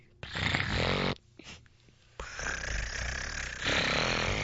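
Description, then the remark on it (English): A voice imitates machine gun fire: a loud, rasping rat-a-tat burst, a brief pause with a few sputters, then a longer rattling volley that swells toward the end. “And this is the sound of the gunshot.”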